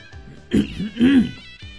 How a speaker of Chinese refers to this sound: 博学先生清了清嗓子，开口说道